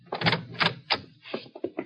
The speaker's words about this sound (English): He found me as I was unlocking the door to my room. Open the door so we can go inside.